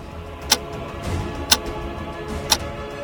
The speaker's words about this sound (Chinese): 房子里一片宁静，只听到挂在墙上的古老壁钟发出的沉重滴答声。